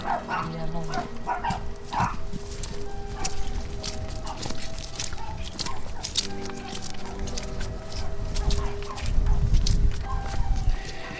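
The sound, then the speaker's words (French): A dog barks repeatedly in short, sharp bursts, scattered across the whole stretch, with footsteps and low outdoor rumble underneath, at 2:53 in the morning on a path behind a farm. “Ah putain de chien Dégage”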